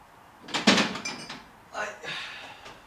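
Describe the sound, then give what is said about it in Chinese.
A refrigerator door opens with a sharp clunk and rattle as someone fetches barbecue sauce from it, then after a short pause swings shut with a softer, longer thud and hiss. No one speaks. “我都忘从冰箱拿出来了，我去拿一下。”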